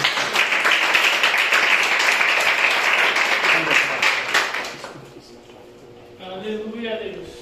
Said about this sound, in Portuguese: E as palmas que adorem ao Senhor Jesus.